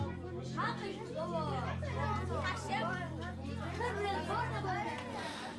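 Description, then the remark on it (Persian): A steady murmur of many overlapping voices, classmates, friends or coworkers chatting at once about the everyday matters of life, with no single speaker standing out and a low hum running underneath. “صدای همکلاسیات یا دوستات همکارات که مشغول بحث سر دو دو تا چارتای زندگی هن.”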